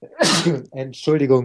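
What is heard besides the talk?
sneeze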